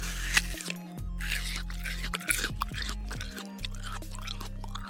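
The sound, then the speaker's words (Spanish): Wet chewing and crunching of juicy watermelon, with repeated squishy bites and moist mouth sounds over a low steady hum, no talking. “Mmm, está deliciosa.”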